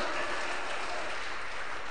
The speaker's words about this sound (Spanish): Gócese, aplauda para su Señor.